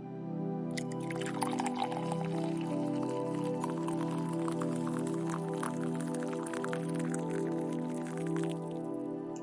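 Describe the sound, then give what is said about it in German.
Boiled water is poured gently over tea leaves in a cup for several seconds, a continuous trickle with small splashes and bubbling, over a soft, sustained musical drone. “Und bald gießt du es behutsam über die Teeblätter.”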